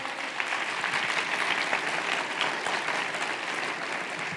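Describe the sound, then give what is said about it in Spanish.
Sustained applause from a crowd, a dense, steady wash of many hands clapping at a fairly even loudness for several seconds, with no voices standing out; an audience applauding the Lord at a preacher's call during a sermon. “Dele un fuerte aplauso al Señor por eso.”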